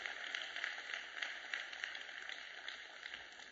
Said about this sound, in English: Somebody give the whole Lord a hand clap on just that right there.